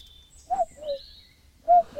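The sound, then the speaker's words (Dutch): A common cuckoo calls its two-note, falling 'cu-coo' twice in a row, moderately loud, with faint high chirps from other birds in the background and no talking. “ja, de koekoek die... Eh, die ja, maar die koekoek dat is echt dat, eh, dat is een dingetje hoor.”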